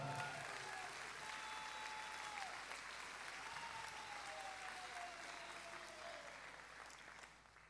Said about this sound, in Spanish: Dele fuerte ese aplauso al Señor por la palabra.